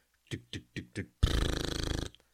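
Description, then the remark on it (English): A voice imitates a drum machine beat: four evenly spaced, punchy vocal hits, then a loud, buzzy, rattling sustained note lasting nearly a second. “which is usually drum machine”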